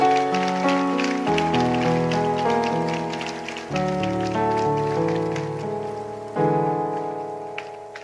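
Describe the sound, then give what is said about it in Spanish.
A crowd claps for Jesus, 'the King', at a prayer gathering, in a dense, steady patter, layered over sustained keyboard chords that shift a few times. The applause and the music carry on together without a pause. “Vamos a darle palmas al Rey, por favor.”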